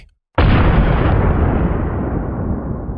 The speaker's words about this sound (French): Puis, des températures allant jusqu'à 1000 degrés Celsius ont provoqué l'affaissement des planchers et la courbure des colonnes du périmètre, provoquant des sons d'explosion qui ont été entendus par les témoins.